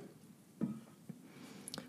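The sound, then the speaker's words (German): Soft, wet squelching of a thick tomato and bean burrito filling, with tomato juice, being stirred in a pan, with a few gentle sloshing pulses at an irregular pace, fairly quiet. “So, alles schön verrühren, dass ich die ja gut kennenlernen kann.”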